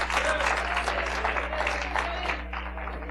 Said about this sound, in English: Give the Lord a hand clap of praise because there is a storm coming.